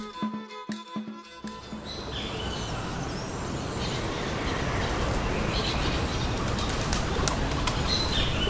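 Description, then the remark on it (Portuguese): A flock of pigeons takes off on a pedestrian street in the centre of a medium-sized city on a foggy morning at seven o'clock, their flapping wings making a dense, sustained rush of fluttering noise, with a few faint bird chirps mixed in. “Estou no centro da cidade Cidade média, com calçadão, neblina e pombos, às sete da manhã.”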